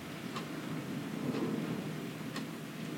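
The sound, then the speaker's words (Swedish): A slow clock tick, about once per second, sounding faintly through a steady hiss of rain and a low thunder rumble. No one speaks. “och lyssnar på åskan, regnet, klockan, vårt hjärta, det som kommer upp, det som flödar, bara tillåter, är här, nu.”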